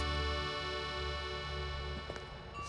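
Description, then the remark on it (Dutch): The clock of the Grote Kerk in Barneveld strikes two o'clock: a large church bell rings out, its deep, humming tones hanging in the air and slowly fading, with a faint knock near the end. No one speaks. “Het is twee uur en u hoort het, de klok slaat bij de grote kerk in Barneveld.”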